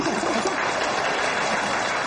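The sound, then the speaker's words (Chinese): Steady audience applause welcoming the next performance on stage fills the whole stretch, a dense, even wash of many hands clapping at once with no voices breaking through. “大家掌声有请。”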